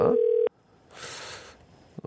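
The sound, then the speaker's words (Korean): A steady, loud telephone dial tone hums for about half a second and cuts off abruptly, followed by a soft burst of line hiss and a couple of faint clicks as a radio host's call to a listener fails to connect. “아, 이게 전화가 좀 연결이 안 되네요.”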